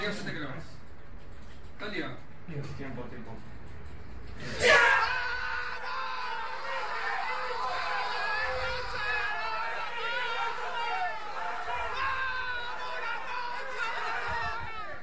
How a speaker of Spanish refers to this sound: Esta es la grabación de los chicos de Isuru cuando ganan la última ronda.